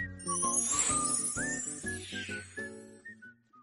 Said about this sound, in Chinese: 小狗当当喜欢跑来跑去，它胸前的铃铛会发出当当悦耳的声音，所以它就有了这个名字——当当。